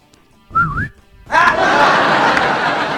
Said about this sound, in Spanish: Ojo, que ese no es un chiflido, ese es un silbido. Eh. Yo también puedo silbar.